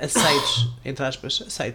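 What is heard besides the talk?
sneeze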